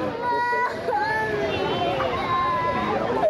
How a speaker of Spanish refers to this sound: Este es el sonido del llanto desconsolado de niños que presume, o se sabe más bien de seguro, que a estos niños les dan una un sándwich de boloñesa al día, a cada niño un sándwich de boloñesa al día, entonces muchísimos están desnutridos